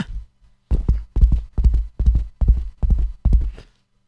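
horse hooves galloping

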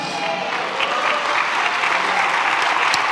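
audience applauding

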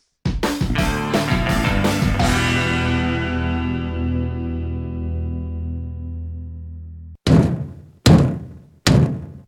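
knocking on a door

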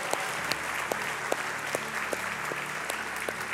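church audience applause

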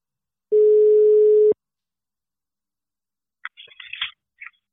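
telephone ringing tone

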